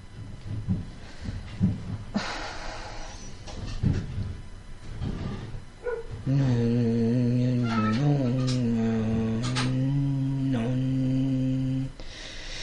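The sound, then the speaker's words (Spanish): After a few seconds of scattered noises, a voice imitates turbines by a river at the foot of a mountain with a steady, monotonous low hum, held for about six seconds with slight wavering in pitch, fairly loud. “Eran unas turbinas, como eh, un, fundido, que podía variar un poco, muy monótono, muy homogéneo, con ciertas variaciones.”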